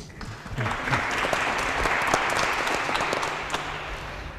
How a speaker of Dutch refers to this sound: Dus nog een speciaal applaus